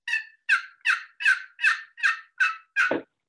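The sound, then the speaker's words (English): A rapid series of about eight sharp, high-pitched turkey yelps, evenly spaced, ending in a lower raspy drop, made with a high-pitched turkey call imitating a turkey and heard over a Zoom call. “It seems like Zoom is trying to correct for the horrible turkey noise that you're making.”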